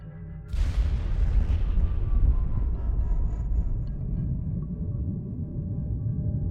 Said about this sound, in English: The sound of the explosion echoed across the West African landscape, wildlife taking flight.